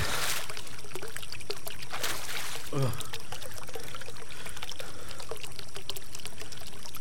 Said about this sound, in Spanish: Y aquel manantial. Debe ser de agua dulce. Si lo es. Bebe un poco,